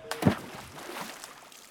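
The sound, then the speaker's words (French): A single heavy splash as a person stumbles and falls into a shallow puddle, followed by a brief trickle of sloshing that quickly fades, with no voices. “Il décida de s'asseoir, mais trébucha dans la flaque derrière lui.”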